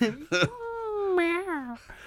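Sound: person imitating cat meows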